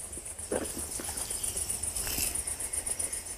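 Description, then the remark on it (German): High-pitched chirping and chattering from bats above and behind a grill, a rapid, steady series of thin squeaks running throughout, fairly faint, with a few soft clicks and rustles underneath and no voices. “Dieses hohe Zwitschern und Zirpen sind die Fledermäuse.”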